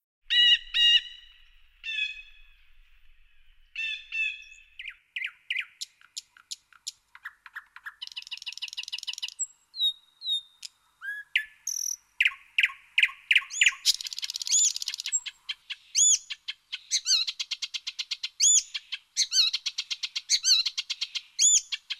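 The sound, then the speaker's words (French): Birds sing continuously in an open natural setting, with bright chirps, rapid trills and repeated whistled phrases from several birds, some clear, with no voices present. “Alors c'est vrai que quand on se promène, que ce soit à travers champs ou en forêt, qu'on est pleinement présent sur l'instant, on peut toujours savourer ces chants d'oiseaux.”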